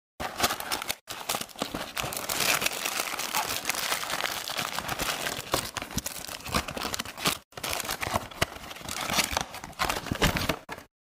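Packaging crinkles and rustles almost nonstop while an Olotech X2 microphone is unboxed, with crisp crackling bursts and brief pauses, at a fairly loud level and with no talking.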